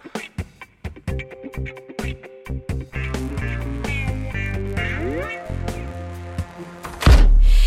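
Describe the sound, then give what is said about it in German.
Music plays with plucked and sustained notes, then near the end the lady of the house slams her front door shut on Mauerkircher Straße after forcibly putting Fritz out, a single heavy, booming slam landing loud over the music. “Die Hausherrin knallt ihre Haustür zu, nachdem sie Fritz gewaltsam vor die Tür gesetzt hat.”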